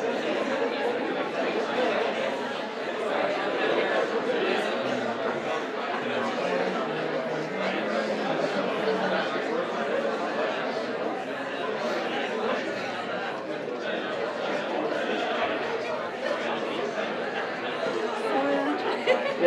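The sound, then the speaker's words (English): A group of people chatting at once with their neighbours, discussing how many references to bread in Mark's Gospel they can think of without looking at a Bible; a steady, fairly loud murmur of overlapping conversations with no single voice standing out, running unbroken for the whole stretch. “Um, sit, turn to your neighbor. Don't look at a Bible, that's cheating.”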